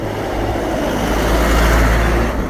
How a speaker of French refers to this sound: petit camion de livraison de machines de boisson